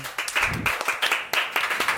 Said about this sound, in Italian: il centro estivo estate in scena ha proprio qui tra noi un parente di Sandokan. Un grande applauso!